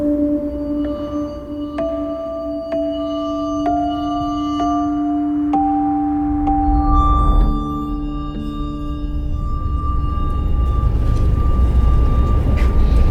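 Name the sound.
inside a moving train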